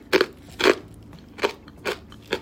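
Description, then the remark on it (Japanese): Loud, sharp crunches from chewing a hard, square Japanese arare rice cracker with roasted almonds, spicy soy sauce flavor: five distinct bites at an irregular pace, each a bright, crackly burst with no talking. “すいませんすごいカリカリ聞こえますかこれぐらいねあのグッて噛まないと噛めない 歯応え抜群なので”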